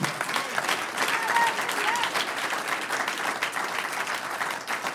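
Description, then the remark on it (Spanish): An audience applauds for the Lord with dense, steady clapping that holds at a fairly loud, even level for the whole five seconds, with a few faint voices mixed into the applause. “Un aplauso al Señor.”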